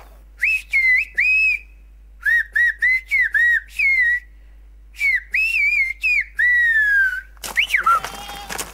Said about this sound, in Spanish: Hay lugares donde el teléfono no vale porque pierde cobertura mientras que el silbo no la pierde. Yo misma sé marcar primero con el silbo que con el teléfono.